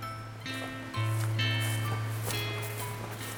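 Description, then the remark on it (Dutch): Footsteps tap along at a steady walking pace in a large, echoing train station, over a constant low mechanical hum and faint background ambience. “Ja, dat is een lopen op het station.”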